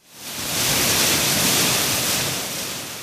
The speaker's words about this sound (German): Heute Morgen rauscht er noch einmal aus sieben Metern Höhe hernieder, der große Wasserfall an der Fassade des norwegischen Pavillons.